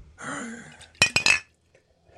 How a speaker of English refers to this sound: Ooh, I got it. Almost a disaster. You nearly smashed your bottle.